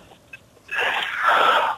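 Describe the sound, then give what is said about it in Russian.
A person imitates a camel with one harsh, breathy, hissing snort lasting about a second, fairly loud, after a brief quiet moment with no talking. “Так, тебе нужно повторить звук верблюда.”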